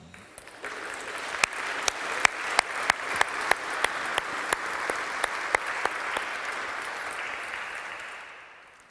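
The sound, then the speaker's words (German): A church audience breaks into applause for its leadership team: dense, steady clapping from many hands, with sharper individual claps standing out, holding for several seconds before gradually tapering off. No one speaks. “Und ich denke, da kann die Gemeinde auch mal klatschen.”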